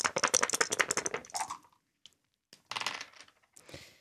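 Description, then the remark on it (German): Three dice rattle quickly inside a cup during a dice game, a dense clatter of clicks for about a second and a half, then tumble and clack onto a hard surface in short bursts. “du hast ähm, drei Würfel in einem Bächli von dir”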